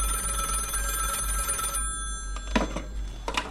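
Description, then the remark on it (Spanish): A telephone in a house rings steadily with bright, sustained metallic tones after the snow has stopped, then cuts off and a few short, sharper rings or clicks follow. No one speaks. “Cuando logra ver con claridad de nuevo, la nieve se ha detenido, pero el teléfono sigue sonando.”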